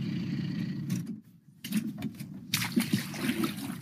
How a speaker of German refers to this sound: Der Trecker als Amphibienfahrzeug. Landwirt Friedhelm Behrens muss da durch, durch das Wasser